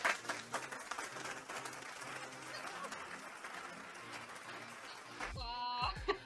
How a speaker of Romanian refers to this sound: Cred că, cred că acum folosim o aplicație nouă pentru a registra și acum, uite, hai să-ți arăt că Putem să punem aplauze.